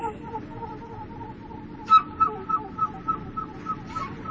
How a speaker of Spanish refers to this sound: donde podía sentir el viento soplar y escuchar las voces de las gaviotas, de las golondrinas, del aire